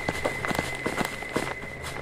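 Quick, steady footsteps at a hurried, near-running pace, each step a crisp thud, as two people carrying armfuls of firewood hurry back to camp, over a faint constant hum in the background with no voices.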